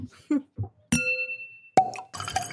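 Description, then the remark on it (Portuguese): Soft sips and gulps of water, then a bright glass clink that rings out for nearly a second, followed by a second knock of the glass and some rustling. No one speaks. “Bom, voltando aqui então do nosso intervalo, eu bebi uma água, porque esse bicho aqui tá batendo.”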